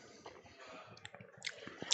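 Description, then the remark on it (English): Soft chewing of a bite of steak, with irregular wet mashing and squishing sounds repeating over a couple of seconds, quiet and with no talking. “Get in and chew it a few times, three or four times.”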